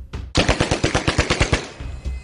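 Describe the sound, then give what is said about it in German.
A rapid burst of automatic fire from a machine gun in Halle, eleven sharp, evenly spaced shots fired in quick succession at a woman, loud, followed by a brief echoing tail. “drückt ab und trifft Jana mit einem Feuerstoß von elf Schüssen”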